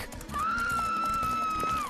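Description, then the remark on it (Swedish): A single long, piercing, heartrending scream holds one high sustained pitch for over a second before trailing off, loud and clear over a faint background murmur. “Kais svar dränktes i ljudet av ett hjärtkärande skrik.”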